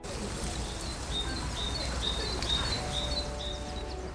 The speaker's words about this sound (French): Effectivement, et justement, alors j'ai réussi à capturer quelques petits oiseaux, enfin le, chant des oiseaux, hein, bien sûr.